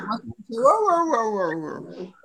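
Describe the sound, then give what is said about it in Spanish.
A dog whimpers and growls, reacting to another dog heard over a video call: a couple of short low sounds, then a long, wavering high-pitched whine that rises and falls for nearly two seconds. “Ah, son mis perros, güey.”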